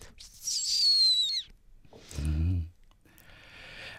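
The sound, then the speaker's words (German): A person imitates a blackbird's aerial alarm call with a thin, high, drawn-out whistle. A brief low voiced sound follows, then a fainter second high whistle. “Und Luftalarm ist noch wieder ganz anders. Das ist so ein oh. hohes, tonloses.”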